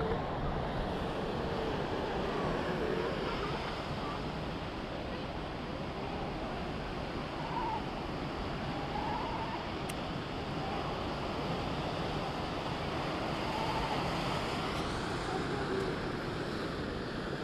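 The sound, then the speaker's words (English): A steady, continuous roar of ocean surf washing against Bird Rock on 17 Mile Drive at sunset in late November, where sea otters are feeding, with a wind-like hiss and no distinct breaks between waves; nobody speaks. “It's sunset, about 5:12, November 20th or so, and I'm overlooking Bird Rock, looking at the ocean, and a whole bunch of sea otters in there feeding.”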